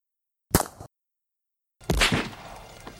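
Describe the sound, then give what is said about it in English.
Two sharp shots from a Walther PP pistol ring out about a second apart, the first a short crisp crack and the second louder with a longer echoing tail. No one speaks. “Um, I'll have to put in what an actual Walther PP sounds like when fired, but it's not going to sound like that.”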